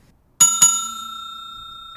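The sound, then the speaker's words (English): A bell rings twice in quick succession, two sharp metallic strikes close together, then a clear high tone hangs and slowly fades with a gentle shimmer. No one speaks. “Well, that was the double bell.”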